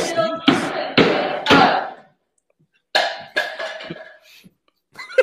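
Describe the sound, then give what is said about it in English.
A cup is knocked or set down several times: three sharp, ringing clunks in quick succession, a short pause, then another cluster of knocks trailing into softer taps. “the cup the cup sound was the key there”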